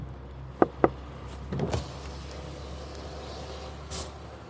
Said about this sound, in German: Guten Tag, wir befinden uns hier auf dem Stadtring und wie immer staut sich der Verkehr.